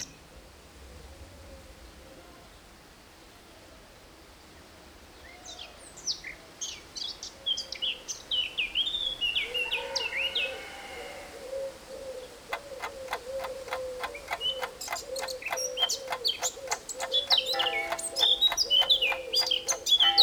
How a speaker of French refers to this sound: Donc je vais vous faire écouter quelques extraits sonores de choses de balade, hein, de balade par exemple à la campagne.